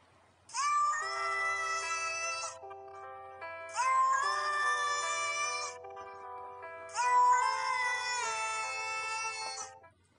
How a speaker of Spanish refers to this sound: Es una obra de arte esa canción, aunque sea un remix de gatos, porque a mí me encantan los gatos, me encanta el maullido de los gatos.